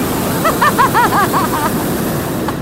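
A hot air balloon burner fires during a flight over Castelo Branco, with a loud, steady roaring rush lasting the whole moment, with a few brief warbling tones riding on top.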